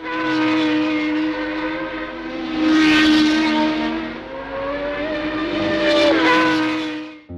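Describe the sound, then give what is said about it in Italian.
Tom Price's Shadow Ford Formula One race car, number 16, roars loudly with a high, harmonic whine, surging as it passes by twice and shifting pitch as it goes, with no talking. “Tom Price and his Shadow Ford number 16 takes over.”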